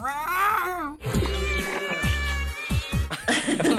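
A kitten gives a drawn-out, wavering meow, then bouncy music with a thumping bass line takes over and plays loudly to the end, in the opening sequence of the telenovela Guerra dos Sexos.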